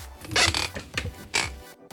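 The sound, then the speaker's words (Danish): A wooden chair creaks several times in quick, uneven bursts, each groan rising and fading, with no talking over it. “Du er jo med mig i dag, fordi du er begyndt at knirke, og jeg vil gerne høre dig først.”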